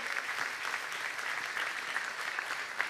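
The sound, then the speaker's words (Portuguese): A church audience claps loudly and steadily, applauding the Lord, a dense, continuous wash of many hands applauding at once with no voices standing out. “Pode aplaudir ao Senhor bem forte.”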